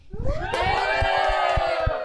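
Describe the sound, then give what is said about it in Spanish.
An audience cheers loudly after a female singing group's song, a dense wall of high-pitched screams and shouts that swells and holds steady for about two seconds, with scattered clapping underneath. “Bravo, un fuerte aplauso.”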